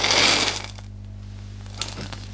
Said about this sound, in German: wenn ein Auto auf die Kamera zukommt und stehen bleibt und mhm. du halt den Reifen richtig groß im Bild hast, dass wir so einen Autoreifen auf dreckiger Straße addieren. Mhm. Also wirklich vom Rollen bis zum Stehenbleiben.